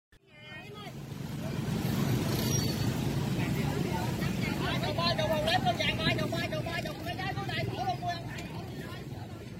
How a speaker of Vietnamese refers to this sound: 7 giờ sáng trên quốc lộ 1, đoạn trước cổng chợ đầu mối Thủ Đức, gần hàng trăm tiểu thương buôn bán các mặt hàng như rau củ, thịt cá, hợp thành chợ tự phát.